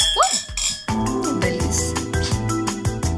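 Wine glasses of white wine clink together in a toast at the close of the radio show Entre Copas y otras cosas, held in Grupo Radio Estéreo's facilities, bright ringing chimes, followed by a busy blend of tonal, musical-sounding background.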